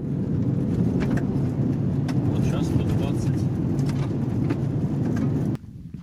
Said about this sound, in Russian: Давайте на вашей машине 120-130 проедемся по этой дороге. Хорошо? Давайте. 100, 100. А! Вам машину не жалко? Да как бы нет, нормально. 110 километров в час.